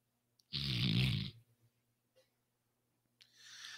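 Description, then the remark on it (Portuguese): A voice imitates a loud, rasping snore in one long drawn-out breath, followed by quiet gaps and then a softer, breathy exhale as the imitation starts again. “E já pula na cama, já dorme, já ronca.”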